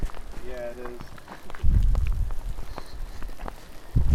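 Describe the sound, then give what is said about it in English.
Hail falls steadily in California, with scattered sharp ticks and taps striking surfaces over a low rumble. A brief voiced sound rises early on, and deeper thuds come and go. “It's hailing, hailing in California.”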